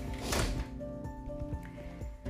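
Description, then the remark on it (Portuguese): A window slides shut: a rough scraping rush at the start, then a few dull knocks and rattles as the frame settles, with a faint hum running underneath. “oi, desculpa gente, o barulho aqui, peraí, só fechar a janela aqui, porque acaba que o vento pode dar ruído aqui, licença.”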